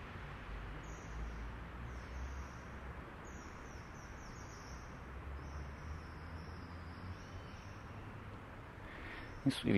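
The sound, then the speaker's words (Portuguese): A parakeet overhead gives a series of thin, high-pitched calls in short repeated bursts, faint above a steady wash of outdoor street noise on Major Lopes street under cumulus clouds, with a brief clatter at the very end. “mas eu acabei de ouvir um, um canto diferente aqui em cima. Imagino que seja de um periquito.”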